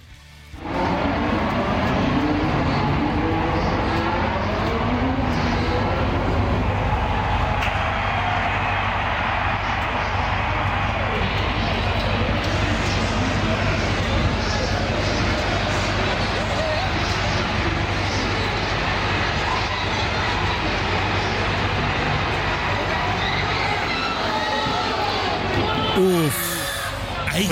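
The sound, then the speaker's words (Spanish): A dense, roaring Formula 1 grandstand crowd at the start of the Mexican Grand Prix, around 2:05 in the afternoon, cheering continuously, with a broad wash of noise and a low engine-like drone underneath, sustained at high volume for nearly the whole stretch before easing off at the end. “así se escuchó la grada de la Fórmula 1 en el instante cuando inicia el Gran Premio de México alrededor de las 2.05 de la tarde.”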